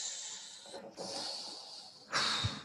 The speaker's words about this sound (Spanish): Respiremos.